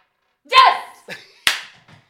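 Yatzy dice clatter in a short burst during a game: a handful of sharp, irregular knocks as they are tossed and land on a hard surface, over in about a second and a half; the roll comes up a three rather than a four.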